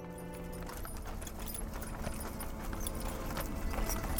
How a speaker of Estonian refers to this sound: Nende sõnade taustal kostis puude vahelt hobuste hirnatusi